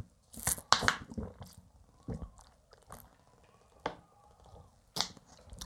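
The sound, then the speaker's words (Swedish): Someone drinking water in a forest, with a few sharp wet mouth clicks and swallowing sounds spaced irregularly over several seconds, quiet between them and no talking. “Eller jag, jag drack vatten, förlåt.”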